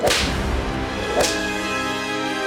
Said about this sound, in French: Il le fouette violemment sur les épaules avec un fouet à chien